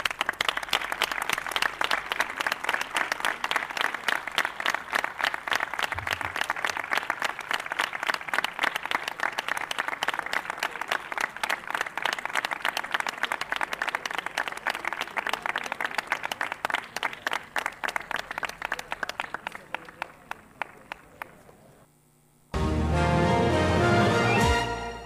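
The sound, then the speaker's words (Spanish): A crowd gathered in Plaza Alcalde Pedro Jiménez breaks into sustained applause concluding a minute of silence, many hands clapping densely and steadily for about twenty seconds before fading out, followed by a brief burst of a different sound. “Concluía este minuto de silencio con un emotivo aplauso de todas las personas concentradas en la Plaza Alcalde Pedro Jiménez.”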